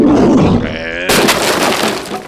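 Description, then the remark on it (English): A rumbling, growl-like build-up gives way to a sudden loud crash as a creature rises out of a snowbank and slams into the side of a sled, followed by a harsh, noisy clatter that slowly fades. “Something rises out of a nearby snowbank and crashes into the side of the sled.”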